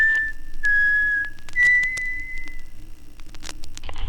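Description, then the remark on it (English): Someone whistles a short melodic tune with a few sustained, gliding notes, clear, followed by faint clicks and background noise as it trails off. “Little whistle.”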